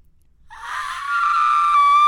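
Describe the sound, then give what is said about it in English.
A voice holds a single very high, whistle-like sung note. It begins breathy and wavering, then settles into a pure, piercing tone that stays loud until it cuts off. “I think that's almost That might highest. register.”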